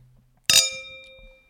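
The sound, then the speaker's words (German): A single bright clink of wine glasses touching in a toast, fairly loud, followed by a clear ringing tone that fades away over about a second. “Ich glaube, diesem, auf das müssen wir, müssen wir anstoßen.”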